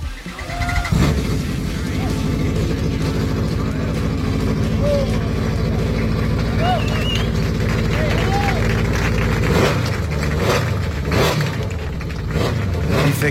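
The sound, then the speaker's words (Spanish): A homemade single-seater race car, built by a farmer in Montilla, Córdoba province, and inspired by the 2007 McLaren, runs its engine loud, a dense droning rumble that holds steady before several sharp revs rise and fall near the end. “ha construido el monoplaza, inspirado en el monoplaza de McLaren de 2007 de Fernando Alonso, que suena así.”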